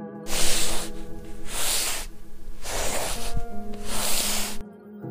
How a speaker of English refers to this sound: And the sound of a body being dragged on the ground.